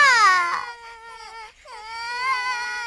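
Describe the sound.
A voice imitates a loud baby's cry, copying the Baby Superheroes' loud crying, a sustained wailing "waah" with a brief dip in the middle before swelling again, high-pitched and harmonically rich.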